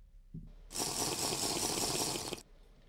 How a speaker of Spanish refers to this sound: Y voy a tomar agua.